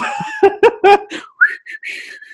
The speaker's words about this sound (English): just whistling.